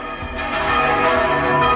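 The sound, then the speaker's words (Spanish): Church bells rung by hand in the Spanish manual bell-ringing tradition, declared intangible cultural heritage by UNESCO; several bells sound together in a dense, clanging peal with rich lingering overtones, loud, no voices. “el toque manual de campanas español, patrimonio cultural inmaterial de la humanidad.”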